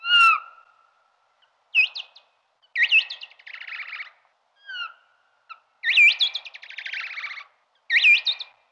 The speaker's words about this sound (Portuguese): Quando se cruzam com outro morcego ou quando estão a tentar comunicar com outro morcego, fazem outro tipo de vocalização, que é perfeitamente distinguível pela forma do som, dos pulsos do som no computador.